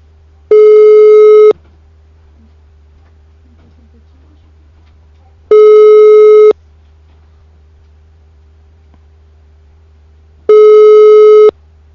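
A telephone ringback tone sounds while an outgoing prank call, placed at 1:38 in the morning, waits to connect: three steady one-second buzzy tones, spaced about five seconds apart, over a faint low hum, with no talking.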